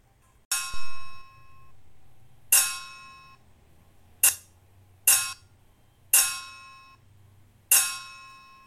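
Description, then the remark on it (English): Six loud metallic clangs from a saucepan lid banged at the crocodile's house in a children's story, each a sharp bright strike with a ringing shimmer that fades, spaced unevenly over several seconds with no talking. “大象听到了鳄鱼家传来的砰砰锵锵的锅盖声，它也决定要吹得大声一点。”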